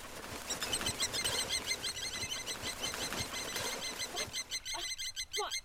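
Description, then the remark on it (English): A busy flock of small birds chirps rapidly and continuously, with scattered soft tapping sounds underneath, thinning out near the end. “Why, are these birds?”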